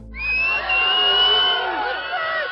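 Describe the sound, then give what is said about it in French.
A dense, compact crowd yells and boos in a loud, sustained roar of many overlapping voices as Cécile Bourgeon leaves the court of assizes after being sentenced to five years in prison, unbroken for the whole stretch, with a few shrill shouts rising above the mass. “il y a encore une foule qui est là, compacte, pour hurler sa haine”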